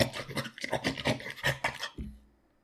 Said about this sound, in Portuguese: E no meio disso tudo você escuta um barulho de cadeira sendo arrastado lá no fundo.